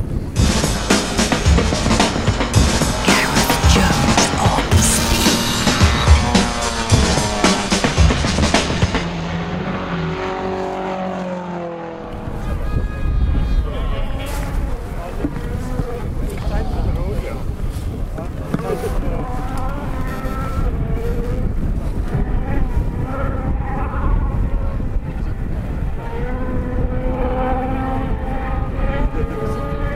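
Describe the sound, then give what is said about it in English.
A racing car engine roars loudly as the car comes over a hill, then its pitch sweeps downward as it passes and goes behind a small hillock, leaving a steady engine drone with some background noise. “You hear that? Just came over the hill.”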